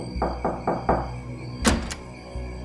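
Four quick knocks on a door in a steady rhythm, fairly loud, followed by a sharper clatter and a low thud; no one speaks.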